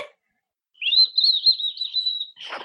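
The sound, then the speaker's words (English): A person imitates a bird using their teeth, a single thin, high whistling tone that wavers slightly and holds for over a second, ending with a soft breathy rush of air. “My secret talent is I can make a bird noise with my teeth.”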